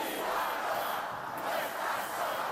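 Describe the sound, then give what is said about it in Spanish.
A large crowd shouts and cheers together in a steady, loud roar of supportive chanting, with no individual voice standing out, in Pamplona, in support of mayor Cristina Ibarrola at a protest against a censure motion to remove her. “Gritos de apoyo a la todavía alcaldesa.”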